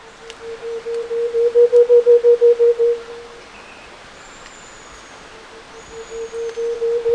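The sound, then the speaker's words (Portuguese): A variegated antpitta (tovacuçu) of Brazil's Atlantic Forest gives its low call: a steady series of about a dozen deep, hollow hoots that swell in volume, pause, then begin again, with faint high bird whistles behind. “Você pega aí o Tovacuçu na Mata Atlântica, toca aí o Tovacuçu, senhora.”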